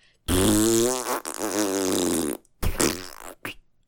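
A loud fart made by pressing cheeks together, squeezed out with a wavering, buzzy pitch, running about two seconds before breaking into a few shorter sputtering bursts.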